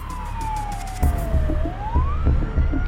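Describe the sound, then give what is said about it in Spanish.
A police siren wails in a slow falling-then-rising sweep, loud, over a deep engine rumble with a few low thumps as the vehicle passes. No one speaks. “A los 10 minutos ya habían llegado dos patrulleros, personal forense y una ambulancia.”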